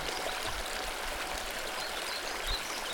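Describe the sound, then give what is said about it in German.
A small river flows steadily with a soft, continuous rush and occasional low gurgles, heard alone at a gentle, even level. “Du lauscht dem kleinen Fluss.”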